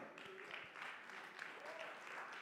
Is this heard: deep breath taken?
no